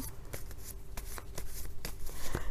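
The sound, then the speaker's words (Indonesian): Tarot cards are shuffled and drawn with a quick series of crisp papery snaps and riffles, irregular flicks spread over a couple of seconds against a low steady background hum. “Kartu yang keluar adalah judgment.”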